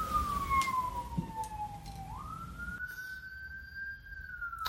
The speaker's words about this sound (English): hang a second, there's a siren.